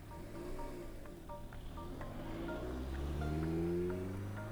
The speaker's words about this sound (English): The car sits for a few minutes and starts again and drives away.